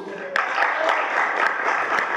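Sustained audience applause, a dense steady wash of clapping with a few sharper claps standing out, filling the whole stretch at fairly even loudness.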